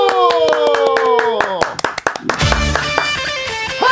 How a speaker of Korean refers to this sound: 화이팅! 박수.